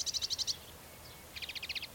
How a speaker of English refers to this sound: This is a sedge, sedge warbler.